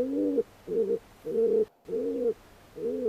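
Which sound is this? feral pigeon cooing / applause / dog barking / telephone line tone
feral pigeon cooing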